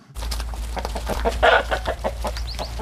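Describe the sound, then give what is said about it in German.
A group of chickens clucks as they scurry through an old woman's snowy farmyard in a Ukrainian village, short overlapping calls and chatters in an irregular stream over a steady low hum, with no one speaking. “Eine Gruppe Hühner huscht durch den verschneiten Hof von Tante Lilia.”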